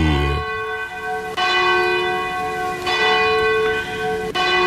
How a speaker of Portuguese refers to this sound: Faltando nesse momento 12 minutos para as 10 da noite, toca o sino da Catedral de Nossa Senhora de Aparecida, a padroeira do Brasil.